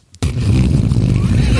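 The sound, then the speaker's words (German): A voice imitates a helicopter, starting abruptly after a brief pause with a loud, steady, buzzing low rumble that holds without a break to the end. “Kannst du noch einmal den Hubschrauber kurz machen, nur das Hubschraubergeräusch?”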